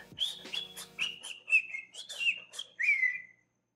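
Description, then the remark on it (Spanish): A person whistles a quick run of chirpy, warbling phrases, mimicking the speech of Carisaurio, a cartoon dinosaur on a TV show who only whistled, then finishes with one longer, sliding whistle. It is fairly clear, with no talking. “O sea, nada más silbaba.”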